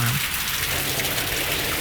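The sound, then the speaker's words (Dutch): Steady rushing, splashing water from a large fountain fills the whole moment, a broad continuous wash that sounds much like waves breaking on a nearby beach, loud and unbroken with no voices. “Als je het niet beter zou weten, zou je denken dat het strand hier 20 meter verderop is of zo?”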